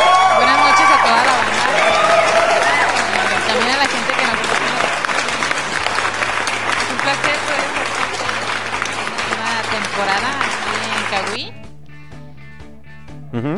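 Loud, sustained audience applause mixed with cheering and whoops lasts about eleven seconds, with a low steady hum beneath, then cuts off abruptly into quieter background sound.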